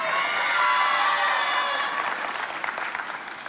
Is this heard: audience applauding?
yes